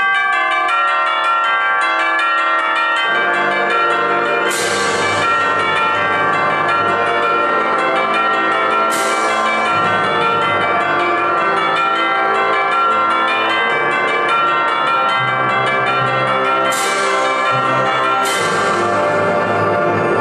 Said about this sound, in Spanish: Vamos a ver estas campanas tubulares dentro de su entorno para ver cómo es que este tipo sacó estos elementos y los metió a su canción.